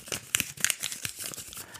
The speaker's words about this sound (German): Und es ist die erste Naturfoto-News, ja, zu der ich hier ein Post-it habe. Ich raschel mal damit.